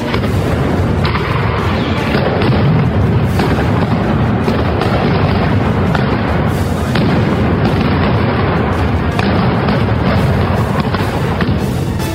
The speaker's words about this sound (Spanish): Para poder estar en contacto, se disparaban cañonazos desde las naves